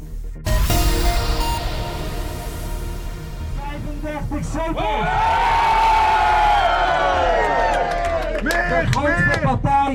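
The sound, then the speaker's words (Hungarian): A large crowd in the Netherlands erupts in loud, sustained cheering and whooping on election night as exit polls show a win for Geert Wilders' far-right party, with shouting voices rising and overlapping throughout, the roar swelling as individual excited cries ring out near the end. “Ekkora volt az öröm, amikor már az exit poll eredményeken is látszott, hogy győzelmet aratott a szélsőjobboldali Gert Wilders pártja Hollandiában.”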